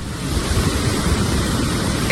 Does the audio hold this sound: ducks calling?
no